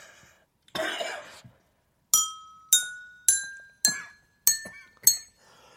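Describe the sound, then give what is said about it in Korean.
Six bright strikes on drinking glasses tuned with water to the notes of a musical scale ring out one after another, each a clear pitched tone that steps slightly higher than the last and decays quickly, preceded by a short rough cough-like burst. “하나는 왜 잔이 다른 거죠? 아, 이 컵이 네. 이상의 음이 안 올라오더라고요.”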